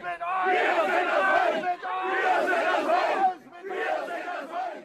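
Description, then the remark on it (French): A crowd of about a hundred hostile protesters in Klausnitz, Saxony, shouts and chants loudly in unison at an arriving bus of refugees, three sustained bursts of angry yelling separated by brief dips, with no single voice standing out. “Jeudi dernier, à Klausnitz, en Saxe, un bus de réfugiés a été accueilli par une centaine de manifestants hostiles hurlant.”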